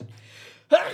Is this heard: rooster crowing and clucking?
no